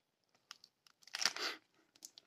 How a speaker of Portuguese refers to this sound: estou aqui a comer uma barra de cereais. A sério, ASMR. ASMR. Uma barra de cereais do Lidl, de chocolate e amendoim. Peço desculpa aos barulhos.